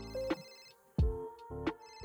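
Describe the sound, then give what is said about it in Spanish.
A telephone rings over and over in a steady, repeating pattern of tonal bursts, moderately loud, with no one answering and no voices. “El teléfono timbró varias veces sin respuesta”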